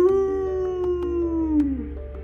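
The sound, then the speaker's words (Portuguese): A single drawn-out wolf howl, steady and fairly loud and close, holding one mournful pitch before sliding downward at the end over a low background rumble. “Foi quando ele escuta o ruivo de lobos próximo dele.”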